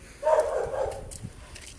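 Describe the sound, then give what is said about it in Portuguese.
A dog barks once in the background on the street, a drawn-out, somewhat muffled bark, followed by faint street ambience with no one talking. “Então, se minha respiração tiver ofegante ou tiver um latido de cachorro por trás, é por causa disso.”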